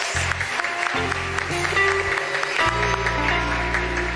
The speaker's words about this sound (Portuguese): Vamos aplaudir, é para o Senhor. Glória a Deus.